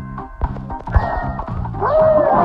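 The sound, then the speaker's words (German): A dog barks a few times, loud, in a video game, mixed in with a steady, rhythmic electronic bass pattern and a rising synth tone near the end. “Findest du auch den Hund da?”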